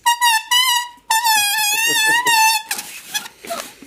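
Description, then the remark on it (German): A loud, shrill squeal like bicycle brakes, produced by a prop: a short burst, then a longer wavering one, trailing into rough scraping and rustling noises. “habe, haben gesagt, ey Mann, wir brauchen jetzt hier zehn Sekunden lang so ein Bremsen von mhm. so einem Fahrrad.”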